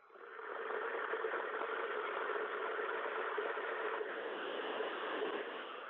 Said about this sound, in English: I'm going to put kettle on now. I'm now speaking. Are you going to make me a cup of tea? Um, you have to wait for noise. Here we go.